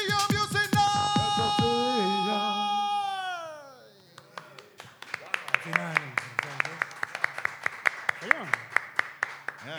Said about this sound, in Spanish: es la primera vez que aplauden en un podcast regular de calzoncillo Music No lo puedo creer.